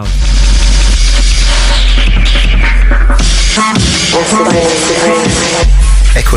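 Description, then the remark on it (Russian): Loud, dense drum and bass with a frantic Amen breakbeat chopped up and turned inside out over heavy sub-bass; midway the bass drops out for a brief melodic, tonal passage before the full-force beat slams back in. “Это совершенно особенный амен трек среди тех, что я слышал. Они просто разорвали его, вывернули наизнанку.”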